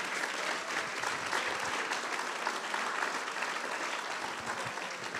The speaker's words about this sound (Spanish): Vamos otro aplauso bien fuerte a todas las mamás que están acá.